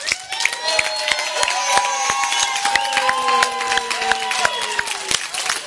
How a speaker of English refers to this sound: Not only do we stand and honor her with our applause, we stand and we honor her for all that she gives out of herself to keep things flowing in this house.